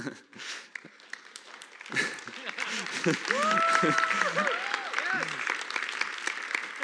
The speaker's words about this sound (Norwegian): Det er ikke så viktig for meg at dere klapper for meg, men jeg syns det er bra at dere gjør det skikkelig hvis dere først gjør det. Og det, det gjorde dere til slutt.